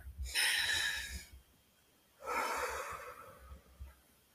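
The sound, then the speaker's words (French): A deep, conscious breath drawn in, a brief pause, then a long, airy exhale, both loud and rushing with no talking. “Viens, on va respirer ensemble.”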